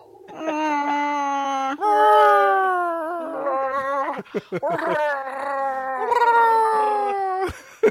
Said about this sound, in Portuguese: O cachorro tá isso. pronto, O cachorro é, é, é, o Chewbacca daqui, da gravação, é isso?